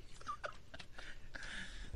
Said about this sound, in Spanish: Los perros están ladrando.